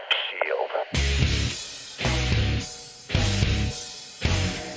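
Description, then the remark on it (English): A loud intro theme bursts in after a brief, thin opening, hammering out four heavy, evenly spaced full-band hits with booming low end, punchy, no one talking. “Hit my music.”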